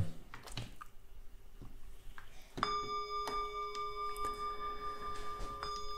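A few soft clicks and taps, then a single bright chime of a five-minute timer strikes and rings on with a clear, sustained tone that slowly hangs until the end, starting a period of shared silence.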